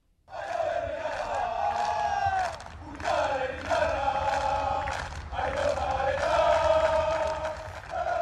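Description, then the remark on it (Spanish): A large crowd of fans chants and sings in unison at a football training session at Zubieta, loud and sustained for the whole stretch, with brief dips between phrases before the voices surge again. “Escuchamos el sonido ambiente de ese entrenamiento.”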